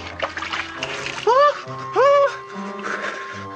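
Continuous water splashing and sloshing as a person washes themself, with two short rising vocal sounds from a person breaking in partway through.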